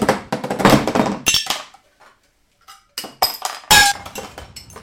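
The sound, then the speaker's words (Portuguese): Metal junk, a can here and a pipe there, clinks and clatters as it is picked up in a messy yard and arranged, a busy run of bright knocks, then a short pause before a few sharper clanks ring out. “Ela pegou um pouco daquele entulho e começou a arrumá-lo. Uma lata aqui, um cano ali”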